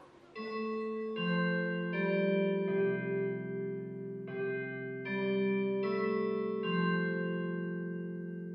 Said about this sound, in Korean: 수업 종이 울렸다.